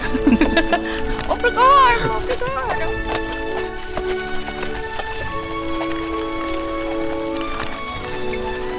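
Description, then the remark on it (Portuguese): Horse hooves clip-clop at a steady walking pace as the horse sets off after a slap on its rump, sharp clear knocks repeating over a sustained tonal background, moderately loud. “em cima da carroça e, e já dá um tapa na bunda do cavalo que é pra ele sair andando.”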